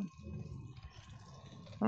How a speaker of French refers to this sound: c'est les dés. Et le pire, je fais 4.